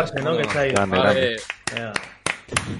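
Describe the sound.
A voice speaks loudly at first, then a handful of sharp, scattered hand claps ring out at an uneven pace, sounding like a small burst of audience applause.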